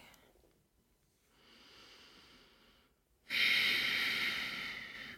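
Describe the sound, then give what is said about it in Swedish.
A slow, deep breath drawn in softly through the nose, filling the belly, chest, collarbones and shoulder blades, followed by a louder, forceful exhale of rushing air emptying the lungs from top to bottom, with no talking. “En sista gång andas in, fyller upp magen, bröstkorgen, nyckelbenen och skulderbladen. Och andas ut, tömmer uppifrån och ner, tömmer, tömmer, tömmer, tömmer.”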